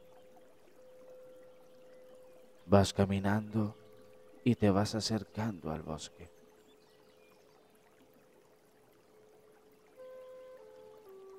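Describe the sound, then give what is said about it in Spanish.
A soft, steady murmur of stream water flowing all around, heard while walking through a meadow toward a forest; continuous and fairly faint, while a person speaks calmly for a few seconds in the middle. “Vas escuchando cómo el agua va corriendo a tu alrededor.”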